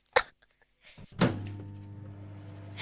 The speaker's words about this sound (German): Mikrowelle! Mikrowelle! Ja, Mikrowelle. Ja, was genau? Mikrowelle? Anschalten. Äh. Wo es Ihnen so dreht. Hört's nur mal genau hin. Huh, das ist schwierig. Popcorn geht auf! Ja, Popcorn! Bock, so, Bock, ja, Bock, genau, das Popcorn geht auf.